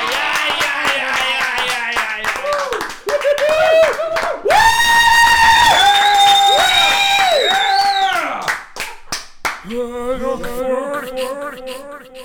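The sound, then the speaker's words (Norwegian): A small, awkward round of clapping from a few people, uneven and loose, broken up by loud vocal whooping and hollering in the middle before the scattered claps resume. “Tar vi en klein klapp.”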